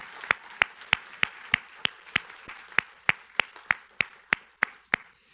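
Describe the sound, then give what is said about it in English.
An audience claps together in a steady, rhythmic beat, sharp loud claps landing about three per second over a continuous wash of scattered applause, with no talking. “can we clap for her loud enough so if she's far away, she can hear it?”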